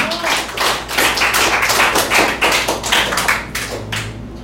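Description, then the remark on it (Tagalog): A church audience applauding the Lord during a service: dense, steady clapping from many hands, loud and sustained over several seconds with a faint rhythmic pulse, no talking, before fading slightly at the end. “Palapakan natin ating Panginoon.”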